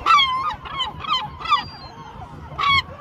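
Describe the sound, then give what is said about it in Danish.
A series of about six loud, harsh gull calls in quick succession, clear, with a short pause before the final squawk. No one speaks. “sagde du, mågernes kar, kar, kar, hvad er det nu, det hedder?”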